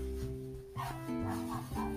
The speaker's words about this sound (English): Noise you hear in the background is the dog barking and me grabbing a banana out of my bag here.